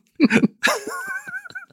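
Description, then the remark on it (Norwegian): A short coughing fit: a quick run of three muffled coughs, then a harsh, forceful cough that trails into strained, wheezy voiced breaths with small catches. “Så der måtte vi ta en liten pause, for at uh, fikk det litt der, faktisk. Hosten fikk det litt der.”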